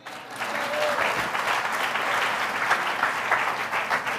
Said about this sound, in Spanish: Aquellos que creen así, den un aplauso al Señor.